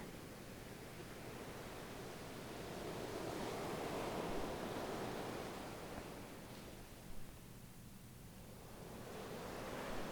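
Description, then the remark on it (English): Ocean waves roll steadily into shore, a continuous soft hiss of surf that swells to a broad crest midway, eases off, then starts building again. No one speaks. “These ocean waves are feelings.”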